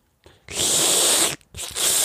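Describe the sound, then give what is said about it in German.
A voice imitates a dental suction tool clearing a wisdom tooth socket: a loud, airy, hissing slurp that runs steadily for about a second, breaks off briefly, then starts again. “Nein, das Raussaugen von Überresten aus der Mulde, die durch meine Weisheitsszene entstanden ist damals.”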